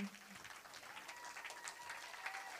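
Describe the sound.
A crowd applauds steadily to honor God and mothers, a dense wash of many hands clapping at once that holds for a few seconds, even in loudness, with faint voices underneath.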